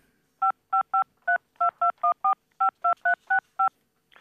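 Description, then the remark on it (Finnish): A rapid sequence of about thirteen telephone keypad dialing tones, each a short dual-pitched beep, played clearly with no one speaking, as a phone call is put through to Wikipedia. “Jos te siellä Googlessa ette tiedä, niin voitteko yhdistää sinne Wikipediaa, jos sieltä löytyisi lopullinen viisaus?”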